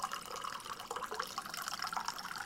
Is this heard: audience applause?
no